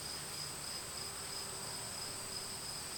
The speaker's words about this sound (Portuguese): Os grilos cantavam lá fora junto de corujas astutas.